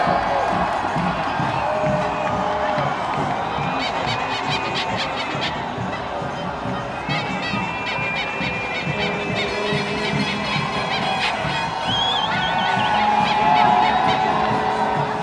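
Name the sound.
protest crowd cheering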